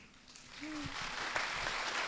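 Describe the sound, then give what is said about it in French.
An audience breaks into applause, the clapping building quickly into a dense, steady patter that carries on to the end, with a short low voiced tone briefly audible near the start. “Alors on va essayer de ne pas trop applaudir parce que notre temps va être bientôt limité.”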